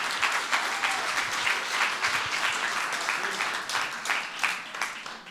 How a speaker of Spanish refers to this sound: Den un aplauso, señora.